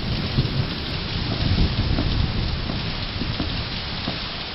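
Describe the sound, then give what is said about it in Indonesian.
Heavy rain hisses steadily while a deep thunder rumble from lightning less than three miles away, somewhere over the forest, rolls underneath, swelling in the middle and fading toward the end. No voices. “Dentuman lagi.”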